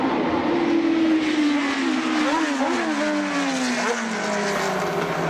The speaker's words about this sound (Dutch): Zal ik even het geluid erbij pakken? Want eh, ik heb hier volgens mij een eh, Formule 1 wagens van voor 1971.